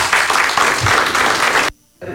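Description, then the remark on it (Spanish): An audience claps steadily in a dense, crackling wash of applause that holds loud for under two seconds, then cuts off abruptly into near silence before a faint return. “Eso merita un aplauso de nosotros.”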